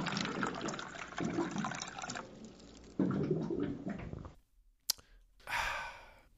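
Water pours and glugs into a cooler, with gurgling bursts for a few seconds, a short pause and a sharp click, then another brief rush of bubbling water.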